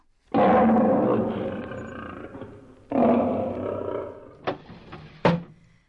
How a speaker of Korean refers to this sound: 그리고 얼마 뒤 나무꾼의 어머니가 장에 가고 나무꾼 혼자 집에 있는데 밖에서 호랑이 소리가 또 들렸어요.